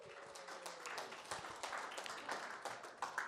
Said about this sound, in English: Give my volunteers a round of applause.